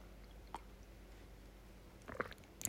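sipping tea

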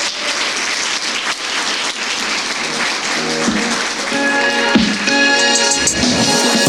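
audience applause

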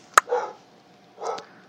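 dog barking

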